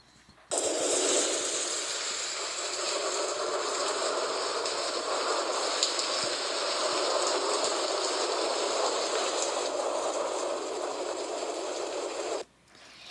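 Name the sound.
heavy rain downpour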